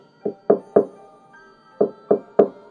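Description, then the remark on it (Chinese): Six knocks on a wooden floor made by a man, struck in two groups of three with a short pause between them. Each knock is a dull, low thud with a sharp onset, and no voices are heard. “咚咚咚，咚咚咚，他在木地板上敲了六下。”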